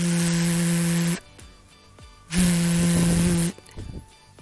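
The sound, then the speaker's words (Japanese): Two sustained voiced buzzes, each about a second long, made by a person's voice humming through the English V and Z sounds, both vibrating like a mobile phone on vibrate: loud, steady, low-pitched, separated by a short pause. “V も Z も両方とも振動の音です携帯電話のバイブレーションの音と同じです”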